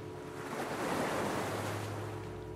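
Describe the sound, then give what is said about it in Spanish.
Ocean waves wash onto the shore in a broad, steady hiss that swells around the middle and eases off, with a faint low hum underneath and no voices. “Con el sonido del mar, los olores, la temperatura agradable, el sonido del silencio.”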